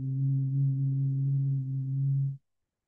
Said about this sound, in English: and just take some deep breaths and some humming. So let's do this together for the next couple of breaths. So breath in. Mm.